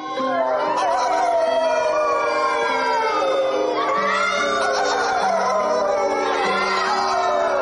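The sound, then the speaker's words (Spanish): Several voices imitate wolves, letting out long overlapping howls that rise and fall together, loud, like a small group joining in a playful chorus. “¿Cómo hacen los lobos? ¿Cómo, cómo, cómo?”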